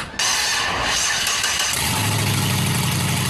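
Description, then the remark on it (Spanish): A car engine whose catalytic converter has been stolen cranks and roars to life as the key is turned, then settles into a loud, rough, rumbling idle with a harsh, unmuffled growl, without any talking. “en cuestión de 5 a 10 minutos se llevan la apreciada pieza y le dejan tremendo dolor de cabeza al dueño, que se dará cuenta que fue víctima al montarse en su auto, pone la llave, ve que esta luz prende y escucha este ensordecedor sonido.”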